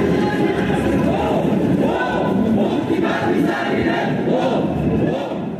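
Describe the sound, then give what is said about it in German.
Thousands of demonstrators, some masked, march through central Vienna, Austria, in 2014 protesting the Akademikerball, chanting slogans together in loud, rhythmic waves, many voices overlapping in a dense, continuous roar of shouting outdoors. “Was Sie hier hören, ist eine Demonstration gegen den Akademikerball im Jahr 2014.”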